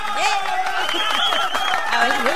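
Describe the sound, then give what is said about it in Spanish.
A brief, steady burst of applause with a crowd cheering and whooping over the clapping, loud and sustained throughout like an ovation sound effect. “Espera una ovación, una ovación, ovación.”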